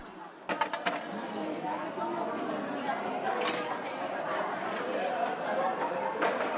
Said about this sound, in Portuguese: Quando você termina a sua refeição, você deve levar a sua bandeja até o balcão. Os talheres são colocados no espaço apropriado, sinalizado com uma placa, e as cascas de frutas devem ser jogadas no lixo ao lado.